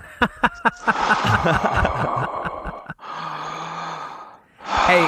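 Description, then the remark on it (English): Someone breathes heavily and loudly, with long raspy inhales and exhales that imitate breathing through a space helmet mask in outer space. No one speaks. “stop breathing so hard.”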